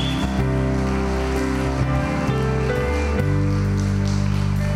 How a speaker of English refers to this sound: Would you give him a big hand clap of praise right now?